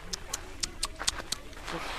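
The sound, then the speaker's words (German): A donkey named Benjamin, being led on a walk at a donkey farm, strikes the ground with its hooves in a steady walking rhythm, about seven or eight crisp steps with a faint outdoor hiss behind them. “weil der Benjamin ähm, echt gut mitmacht hier beim Laufen, ähm, streichel ich ihn jetzt mal.”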